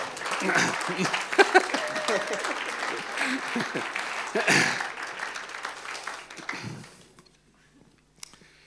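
A church audience claps in a warm burst of applause lasting several seconds, dense, then tapering off and fading to near silence with a couple of stray claps at the end.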